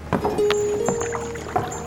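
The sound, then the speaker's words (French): A passing rowing boat moves through the river water of the Seine at Lutèce, oars splashing in a few steady strokes, with faint wooden creaks between them and no voices. “Mais nous faisons du commerce aussi et surveillons le trafic fluvial il y a un autre bateau qui passe.”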